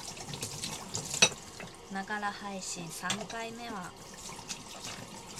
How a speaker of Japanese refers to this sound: ということで聞こえてんのかなこれ水道の水道の音を出しながら水道を流しながらお話ししてても私の声は届いているのかしら